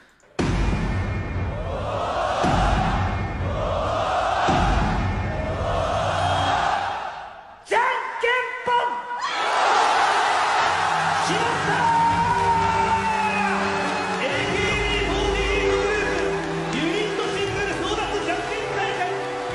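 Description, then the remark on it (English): A crowd shouts and cheers loudly at a rock paper scissors tournament in Japan, with three rhythmic rising chants followed by a brief pause, then a sustained burst of yelling, whooping and excited chatter. “This is rock paper scissors, a uh, rock paper scissors tournament in Japan.”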